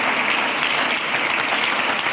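A crowd applauds steadily, a dense wash of many hands clapping at even loudness for a couple of seconds, with no voices standing out above it.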